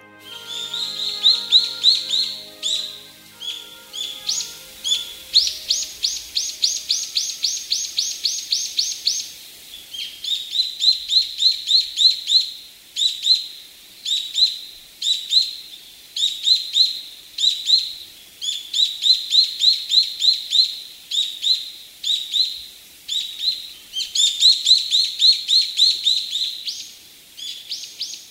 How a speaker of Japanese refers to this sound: 聞こえてきたのはおなじみのヒヨドリの鳴き声です